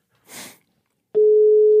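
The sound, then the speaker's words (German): After a brief, soft breathy rustle, a loud steady electronic ringback tone starts abruptly and holds a single unwavering pitch, the outgoing-call ring of a telephone. “Es klingelt.”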